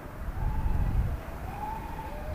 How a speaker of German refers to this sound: Wir stehen auf einem Bolzplatz. Von hier aus kann man das Gelände gut überblicken. Und man hört den Wind, der hier bald in Energie umgewandelt werden soll.